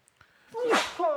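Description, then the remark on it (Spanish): A single loud sneeze bursts out with a sharp breathy blast, followed by a brief vocal tail as someone reacts right after. “Salud. Salud.”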